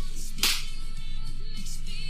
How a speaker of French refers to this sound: l'actrice a dû mettre des vrais gifles à, Jackie Chan